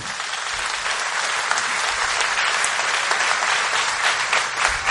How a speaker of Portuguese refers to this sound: Amém? Você pode aplaudir Ele então por isso?